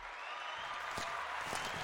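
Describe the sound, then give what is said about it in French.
A short burst of applause sound effect: dense, steady crackling claps from many hands, fairly quiet and even throughout, with no voices. “Alors, ils sont où mes sons Les applaudissements.”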